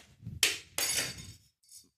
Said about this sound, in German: Der Kater. Der Kater hat die Maus vom Nachbarrechner runtergehauen.